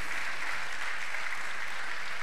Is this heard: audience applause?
yes